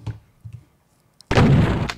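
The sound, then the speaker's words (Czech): A few soft, low thuds, then a sudden loud burst of a video game gun firing, a sharp muzzle blast with a short crackling tail, a small explosion at the gun's barrel. “Hlavně se mi líbil ten výbuch, ale, ale jako pak jsem se do toho Čistě vcítil jako a viděl jsem, že prostě to může být fakt i to.”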